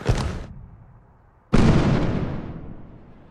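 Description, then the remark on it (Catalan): Two loud fireworks bangs form the first warning volley of a fireworks display, two minutes before it starts. A first sharp blast fades into rumbling echo, then a second, stronger boom about a second and a half later rolls slowly away. “això no ha sigut el cor de Jaume, sinó el primer avís dels focs artificials”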